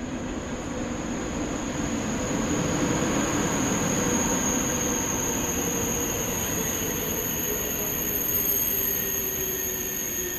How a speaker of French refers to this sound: Et là, on est dans la gare et vous parlez d'un train qui est absolument tragique.